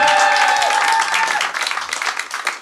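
The audience of the live show Intimité Live on Home Radio applauds steadily at the end of the broadcast, a dense patter of many hands clapping at once, loud at first and tapering slightly, with a few sustained tonal notes ringing underneath early on.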